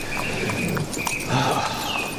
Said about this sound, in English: The uh, the weather's calm, quite warm. Little breeze blowing. Horses are calm, just on a steady trot as we ride across the plains to New Orleans.